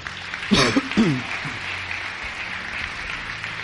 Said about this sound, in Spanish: Vamos a darle un aplauso